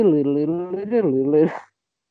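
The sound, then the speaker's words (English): A single voice sings a quick, bouncy melody without words, imitating a looping piano riff from a pop song. The pitch steps up and down over about a second and a half, clear, then stops. “do you know that one part of "…" where it's the piano going”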